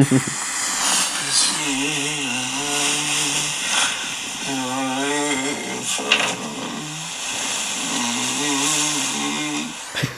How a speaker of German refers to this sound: Ich habe irgendwas gesummt und gesungen.